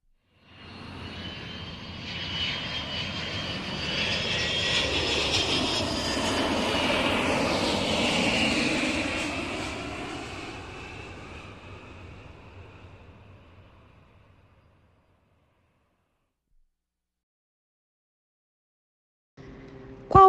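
An airplane engine drones overhead, swelling from a faint hum to a loud roar with a shifting pitch, then fading away into silence over about fifteen seconds; a brief click follows at the end.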